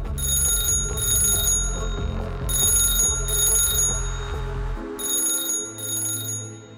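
A telephone rings over and over in bright, shrill bursts grouped in pairs, with short pauses between each pair, above a steady low rumbling background.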